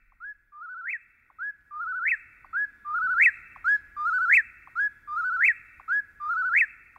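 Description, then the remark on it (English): A whip-poor-will sings its three-part whistled phrase over and over in a steady, rapid rhythm, loud, with no other sounds around it. “In September of 1851, Henry David Thoreau wrote, The whippoorwills now begin to sing in earnest about half an hour before sunrise, as if making haste to improve the short time that is left them.”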